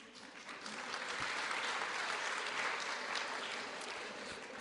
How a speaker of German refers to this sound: Steht doch mal auf, die euch im Moment auf Beruf zu Hause entschieden habt. Ja, toll. Applaus an dieser Stelle.